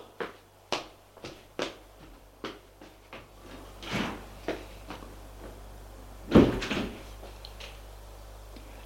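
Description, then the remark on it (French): Elevator doors and a ride as a woman takes the elevator up to her apartment floor: a run of sharp mechanical clicks and clunks over a steady low motor hum, then a louder rattling clatter as the doors shift near the end. “Vite, elle va prendre l'ascenseur.”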